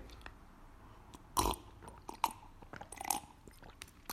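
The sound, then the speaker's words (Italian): Someone sipping tea at 7:29 in the evening, before dinner: three wet, slurping mouth sounds, the first the loudest, followed by a short sharp one and a longer, softer sip, with quiet moments between and no talking. “Ah, sempre buono il tè.”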